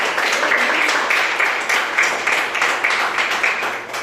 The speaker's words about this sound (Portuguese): Vamos dar salve de palmas para Jesus, que Jesus que eu peço.